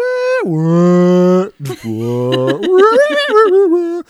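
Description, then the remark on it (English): A voice imitates a badly pitch-shifted singing sample rolled up and down a keyboard, sliding from a high note down to a low, droning moo-like tone, then warbling back upward in wobbly steps, loud. “They they do this with this weird singing thing and it's just like rolling up and down the keyboard and it's like Oh, yep.”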